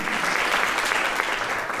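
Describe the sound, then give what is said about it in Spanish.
A church audience claps together in steady, dense applause for the owners of the venue they are renting, a continuous bright patter of many hands that holds at an even level throughout without any voices breaking through. “Denles un aplauso a los dueños de este local que nos están alquilando con tanta generosidad.”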